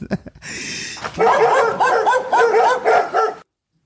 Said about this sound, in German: Und es ist eine Tollerei hier, kann ich dir sagen. Ja, so eine, so eine äh, richtige, richtige äh, Hundeparty jetzt bei euch